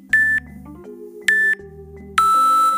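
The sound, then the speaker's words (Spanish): Three loud electronic beeps from a sports timer app's alert: two short equal tones, then a longer final beep, all over a faint background tone, with no talking. “¿Cómo queremos que nos avise el temporizador? Tenemos varias opciones. Botón, VIPs, VIPs predeterminados.”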